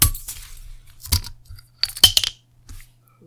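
A bulb-shaped glass beer bottle is opened: a few clinks and rattles of the stopper against glass, then a soft, muffled pop rather than a crisp one, with no talking.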